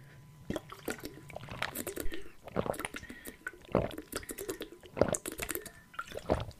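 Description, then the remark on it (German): Wet swallowing sounds as someone takes a big drink of water in several gulps, each swallow a short liquid burst separated by brief pauses, with faint breathing between. “Ich muss erstmal einen großen Schluck Wasser trinken, fällt mir gerade so auf.”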